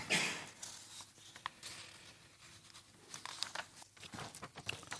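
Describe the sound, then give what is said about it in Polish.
Paper rustles and crinkles in a burst of handling as someone searches for a sheet of paper, followed by softer intermittent crumpling and shuffling, with a few sharper crackles near the end. “Wracamy do kartki. Gdzie jest ta moja kartka?”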